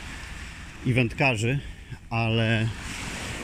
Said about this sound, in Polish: Ja jak słyszycie w tle na szczęście idę yy, plażą, gdzie wciąż ludzie są.